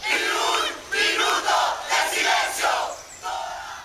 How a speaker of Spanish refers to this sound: La ciudadanía democrática sigue gritando y manifestándose con consignas como, por nuestros muertos, ni un minuto de silencio.